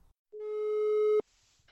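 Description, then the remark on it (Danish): A single steady telephone ringing tone on an outgoing call to Søren Østergaard, head of the Center for Ungdomsstudier, clear, lasts just under a second before being cut off abruptly by a click, followed by faint line hiss. No one speaks. “Jeg vil ringe til Søren Østergaard.”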